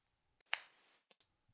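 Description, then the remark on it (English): A silver metal coin is flipped with a single bright, ringing ping that hums for about half a second, followed by a couple of faint clicks as it settles. No talking. “So I guess let's hear what our silver guy is all about right now”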